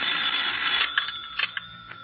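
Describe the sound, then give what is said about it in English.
A telephone bell rings steadily with a bright, high-pitched metallic trill, joined near the end by a few brief clicks and clatters. No one speaks. “But that's Ying now. Oh, yes, sir. I'd better answer that.”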